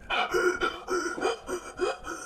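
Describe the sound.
A voice imitates a creature's fast, frightened breathing: about half a dozen quick, raspy in-and-out breaths in a steady panting rhythm, fairly loud, with no words spoken.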